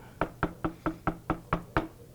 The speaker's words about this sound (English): knocking on my door.